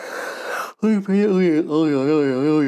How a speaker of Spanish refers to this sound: otro bostezo a la cama directo, a la cama directo, pero vamos, que es que hoy ni veo series, ni veo nada, ni a la cama directo.